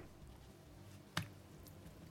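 A single short, wet squish as a slice of bread soaked in water is squeezed out while cooking, fairly crisp, with quiet background before and after and no talking.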